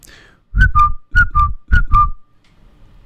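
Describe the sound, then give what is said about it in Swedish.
A person whistles an imitation of a great tit's call: three quick two-note phrases, each a higher note dropping to a lower one, delivered clearly with no talking. “Vad var det för något? Talgoxe.”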